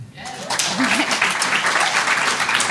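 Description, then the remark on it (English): Loud, dense applause from an audience in Canada who have seen the show Orphan Black, about 40% of the room, rising quickly and holding steady as a continuous wash of clapping, with a brief voice or cheer audible near the start. “Applause, applause. Yeah, make as much noise.”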